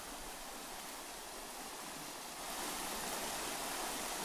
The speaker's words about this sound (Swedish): Sen går vi här nu vid Lankebro. Och just nu så strömmar det rejält med vatten.